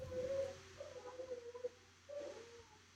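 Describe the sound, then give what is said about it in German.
A dog howls in two drawn-out, wavering tones separated by a short pause, clear, with no talking over it. “Ich, ich höre hör den Hund, ja.”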